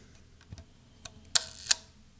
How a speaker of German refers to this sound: Und dann sind die Lamellen so ganz langsam wieder geschlossen. Da bin ich mal gespannt. Ich versuche mal eine Fünftelsekunde.